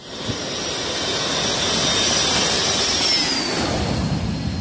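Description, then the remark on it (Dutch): A jet aircraft, flown by an air force pilot, roars loudly and steadily as it takes off from a jungle path, a broad rushing thrust with a high whine that bends downward as the plane pulls away; no one speaks. “Er is een eh, meneer van de luchtmacht is daar eh, bereid gevonden om het ding op te laten stijgen.”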